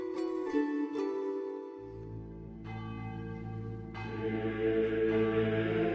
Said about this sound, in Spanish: Las campanas repicaron, y a pesar de ser un sonido que le debería resultar familiar por escucharlo varias veces al día, las de esta tarde fueron diferentes, como provenientes de un sueño, lejanas y envueltas de un eco fantasmagórico